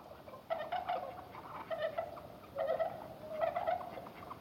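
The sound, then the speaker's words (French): Swans calling at their wintering site on a frosty winter morning, soft, mournful, trumpet-like honks, about four short bursts of mid-pitched, reedy notes spaced over a few seconds against a faint steady hiss, with no talking. “Les appels doux et mélancoliques des cygnes résonnent. On dirait de lointaines trompettes.”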